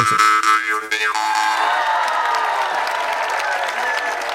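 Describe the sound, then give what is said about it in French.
A twangy jaw harp boings with a wobbling, sliding pitch for about a second, then dense applause and crowd noise fill the rest, loud and steady. “On se la claque-tu encore? Avec des applaudissements en plus.”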